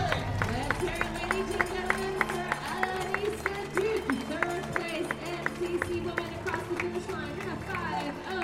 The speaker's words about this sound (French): Les applaudissements s'il vous plaît.